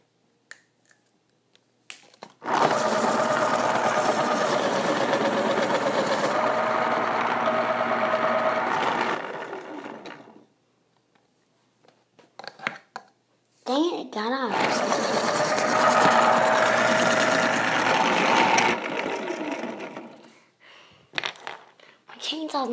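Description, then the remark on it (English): A chainsaw engine roars loudly for several seconds, cuts out, then revs up again for another long burst, with brief clicks and handling noises in the pause between. “Now, let's use my chainsaw.”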